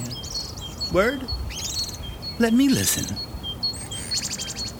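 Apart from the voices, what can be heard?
birds singing outdoors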